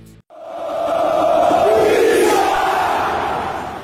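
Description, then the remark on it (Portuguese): A massive football stadium crowd bellows a jeering chant of homophobic insults in unison at the opposing goalkeeper as he takes a goal kick, a loud, dense roar of many voices that starts abruptly and holds steady for several seconds. “No momento da partida em que o goleiro adversário cobra o tiro de meta, a torcida provoca o jogador com insultos homofóbicos que ecoam por todo o recinto.”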